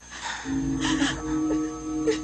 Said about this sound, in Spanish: Madre e hija se abrazan llorando.